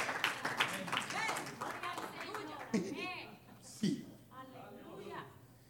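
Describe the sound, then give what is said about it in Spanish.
A church audience applauds during a sermon with scattered, overlapping claps that fade after a couple of seconds, while a man speaks loudly over and after them. “Por eso, aplauda.”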